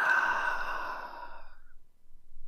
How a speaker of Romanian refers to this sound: Auzia o voce șoptită care îi pronunța prelung numele Nera.